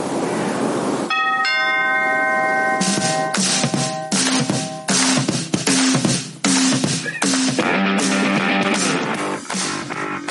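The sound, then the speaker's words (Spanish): A loud doorbell chime, always played before a segment, rings out in a sequence of bright tones, repeating over several seconds amid sharp percussive hits, with no one speaking. “como este timbre que suena siempre antes de tu sección, yo toco a tu puerta para que nos cuentes qué ha pasado la jornada 24.”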